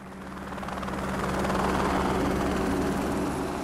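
A helicopter's rotor thrums steadily overhead, ferrying out equipment of energy contractor Western GECO from the Dome Plateau project in Utah, its rapid chopping pulse swelling louder toward the middle before easing slightly, with no voices present.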